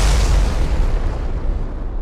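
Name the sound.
explosion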